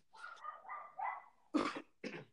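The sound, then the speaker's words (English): A dog lets out a drawn-out, wavering whine or yowl, then two sharp, separate barks, all fairly faint, with no one talking. “No squirrel is worth barking for that long about.”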